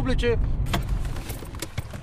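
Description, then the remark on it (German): People climb into an old station wagon: a brief voice, then keys jingle, a door thuds and clothes rustle against seats, over a steady low rumble of vehicle noise. “Wir steigen um in dessen alten Kombi.”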